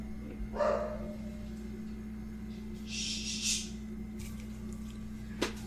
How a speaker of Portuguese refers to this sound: Cara, que cachorro, filho de uma. Velho. Calma. Não, é só fechar a janela, né? Ele, ele tá vindo da onde? Ah, tem um cachorro aqui na primeiro andar aqui. Ah, é aqui dentro.